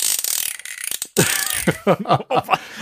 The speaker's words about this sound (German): Das ist im Grunde der ein, ein Strahler mit äh, Kurbel, und äh, vorne einem aufgesteckten, äh, starren äh, Protonenstrahl in Gelb. Und äh, ich weiß nicht, ob es zu laut wird für, die, äh, für das Mikrofon, aber ich mache es nur ganz kurz.